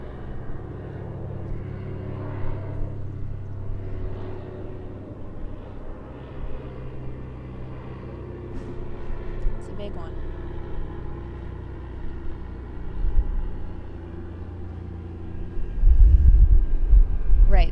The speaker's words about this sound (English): There's a helicopter. One sec. Oh, it's not a helicopter. It's a. Looks like a military plane, like a Hercules or something.